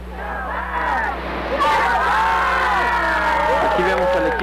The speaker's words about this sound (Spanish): Estamos ahora cerrando con el grito del Shabak de guerra, grito de adoración y de victoria.